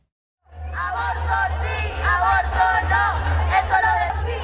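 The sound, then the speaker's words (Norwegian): About a thousand demonstrators in Bogotá, Colombia, chant "yes to abortion" and cheer together in celebration, many voices overlapping in a loud, steady roar with rising and falling shouted phrases over a low rumble. “Ja til abort roper et tusentall demonstranter i Colombias hovedstad Bogotá.”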